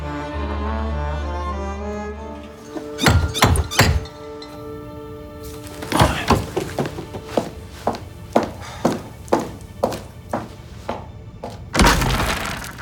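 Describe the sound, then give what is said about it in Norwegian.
Lilly knocking on the door of Vinter's home: a low held tone fades, then come a few heavy thuds, a quicker run of lighter knocks, and a final loud burst of raps. No one speaks. “Og alt begynner når Lilly banker på hos Vinter.”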